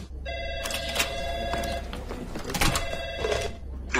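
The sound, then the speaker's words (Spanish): A telephone rings twice in quick bursts, a bright, warbling electronic ring, with a brief pause between the two rings and a faint background hum. “Discúlpeme, tengo que cogerlo.”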